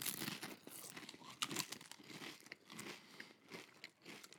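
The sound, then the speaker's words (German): Crisp crunching of Pringles potato chips being bitten and chewed, a steady run of brittle cracks and crackles lasting several seconds with no talking. “Wie bewertest du den Knusperfaktor? Knusprig 9 von 10.”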